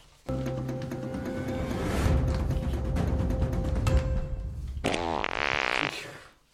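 A long, loud, buzzy fart rumbles for several seconds, then shifts into a higher, sputtering, wavering squeal before cutting off abruptly. No one speaks.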